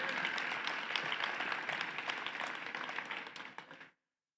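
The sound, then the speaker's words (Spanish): An audience applauds steadily for about four seconds, a dense wash of many hands clapping at even loudness before it stops abruptly. “Vamos, alguien tiene que aplaudir con nosotros.”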